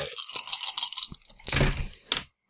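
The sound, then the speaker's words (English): Dice rattle in a hand or cup for about a second, then clatter and tumble in a louder, bright burst with a final sharp click, no voices; the dice are rolled for smart plus bureaucracy. “So I'm gonna roll.”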